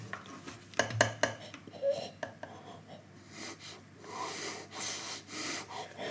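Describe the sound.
A voice imitates a man's heavy breathing while he concentrates on studio work at a laptop: a few sharp clicks like mouse clicks, then a run of loud, rhythmic, snorting nasal breaths in and out.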